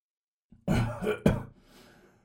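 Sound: man coughing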